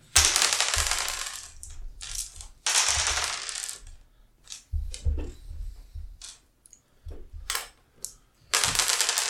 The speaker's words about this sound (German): Und dann schieben wir die Würfel wieder in die Mitte, die Zahlen sind da jetzt egal.